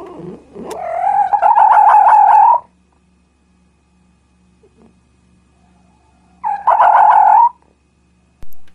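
A fox lets out two loud, wavering, high-pitched cries, the first lasting about two seconds, then a quiet pause before a shorter second call, with nobody speaking.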